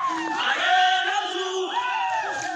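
A large protest crowd in N'Djamena, Chad, shouting and chanting together in the street during harshly repressed demonstrations, many voices raised at once in a loud, sustained roar that swells and holds steady throughout.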